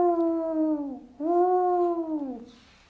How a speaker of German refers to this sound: Ein lautes Heulen unterbrach das Gespräch. Vom Steilhang her rief der Wolf.